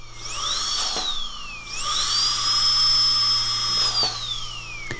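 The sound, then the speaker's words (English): A dental drill whirs with a piercing high-pitched whine, spinning up, dipping, then revving again and holding a steady shriek before winding down. Fairly loud, with no voices. “Do your dentist bit, but just cut out the sound of the drill.”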